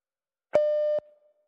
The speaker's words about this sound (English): And then I'll just go in and bleep that and it'll sound cool.